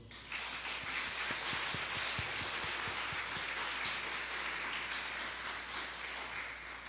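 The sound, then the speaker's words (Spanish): An audience breaks into steady applause for Christ Jesus, a dense wash of many hands clapping that holds at an even level for several seconds, with no voices heard over it. “Entonces, si usted está de acuerdo, por favor, a Cristo Jesús que está con nosotros, denle un aplauso.”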